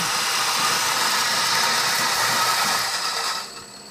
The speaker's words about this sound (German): Also es gibt, äh, nee, Entschuldigung, ich habe ja einen Coolflash gerade gemacht. Es gibt dieses dampfende Geräusch